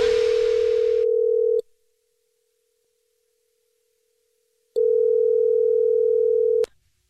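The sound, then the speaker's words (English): A telephone dial tone sounds before a radio prank phone call, a steady mid-pitched hum heard in two long, loud bursts separated by about three seconds of silence, with no voices. “It's another Jubal phone prank.”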